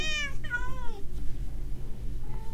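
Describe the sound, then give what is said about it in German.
A cat gives a clear, drawn-out meow that slides downward in pitch, then a softer, brief mew follows near the end, over a steady low background hum. “Wenigstens sind meine Ka äh, wenigstens sind die Katzen da. Katze. Mau.”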